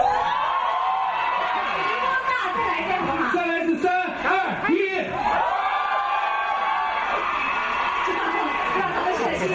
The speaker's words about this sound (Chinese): 那边那群老爷们确实吼得挺累的。